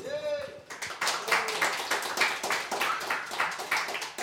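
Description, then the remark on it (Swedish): A burst of clapping from a group for a pianist about to perform rises right after a brief voice and continues steadily, a dense, bright patter of many hands holding at an even level throughout. “Han är också värd en applåd.”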